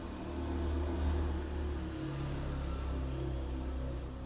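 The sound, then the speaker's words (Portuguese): A motorcycle passes by outside, its engine droning steadily, a low humming rumble that swells slightly early on and then holds, with no one speaking. “Esperar a moto passar, né?”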